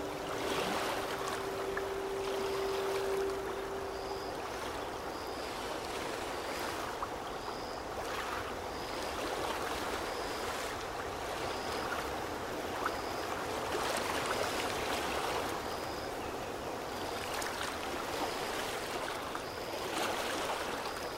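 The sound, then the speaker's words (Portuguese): Small waves, stirred by the wind, lap steadily against a calm lakeshore in a soft, continuous wash, with faint high chirps repeating in the background and a brief low hum near the start. “vento alisa as águas calmas do lago, produzindo pequenas ondas.”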